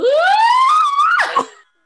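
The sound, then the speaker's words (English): A voice mimics the high-pitched scream of a woman who fell and is swinging in a harness: one loud, sustained wail that climbs steadily in pitch, then breaks off in a short ragged burst. It is unaccompanied, lasting under two seconds. “Poor diva in the middle, Ellie Leah is just like screaming because she's been”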